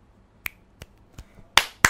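A few sharp, separate claps at an uneven pace, applauding someone for understanding a point, starting softly and ending with two louder, fuller claps; nobody speaks.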